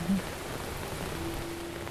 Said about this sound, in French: Ici, c'est une zone à grains, mais pour une fois, c'est loin de me déplaire. L'eau douce qui tombe du ciel est vraiment bienvenue. Ça va rincer les voiles, le pont, les routes, la castille.